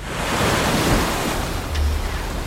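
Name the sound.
rough sea waves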